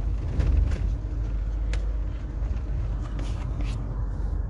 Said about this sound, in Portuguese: Tô parando o carro, tá? Pra ninguém me condenar.